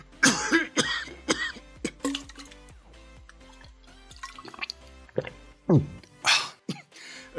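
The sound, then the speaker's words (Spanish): Harsh coughing in repeated irregular bursts from someone who choked on an arepa, with strained breaths and throat sounds between them, easing briefly before a final loud round of coughs. No one speaks. “Perdón, eh, se me había atorado una arepa.”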